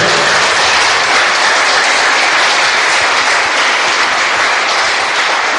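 An audience breaks into sustained applause, a dense, loud wash of many hands clapping steadily throughout with no pauses and no voices standing out.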